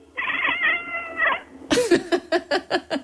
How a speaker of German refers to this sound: Okay, also du machst jetzt Hatschi und die Katze redet dann zurück. Okay, Hatschi.